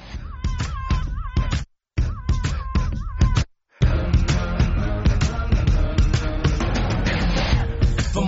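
A hip-hop song from a film opens with heavy, pounding drum hits in a stop-start pattern, broken by two short silences, before the full dense beat kicks in loud and steady.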